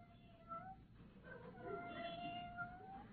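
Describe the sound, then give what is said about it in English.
A small Persian kitten wearing a blue ribbon meows several times at a screen door, trying to get in the back door, in high, thin, rising cries, with a steady low background hum and no one talking. “Oh, McGee, look, a little kitten trying to get in the back door.”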